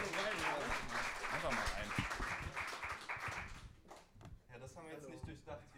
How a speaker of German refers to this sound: Schön, dass ihr da seid. Applaus.